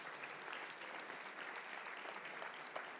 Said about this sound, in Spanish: Démosle un aplauso al Señor, hermanos.